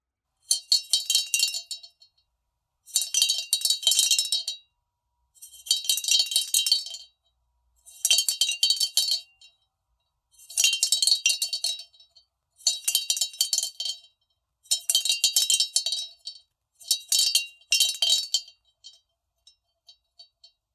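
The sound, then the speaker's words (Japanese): A rabbit-shaped, uncoloured unglazed clay bell (dorei) sold at the Ise Shrine in Mie Prefecture is shaken in eight short bursts, each a bright, dry, rattling jingle about a second long, with brief pauses between. Clear, no voices. “うさぎの形をした奴隷が神宮には売られています。色がついていない素焼きの奴隷。”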